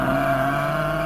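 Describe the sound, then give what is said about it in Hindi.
Ramu's water buffalo lows at night in a village, a single deep, droning call that holds steady and loud for about a second, with no other sounds around it. “तभी रामू की भैंस की आवाज सुनाई देती है”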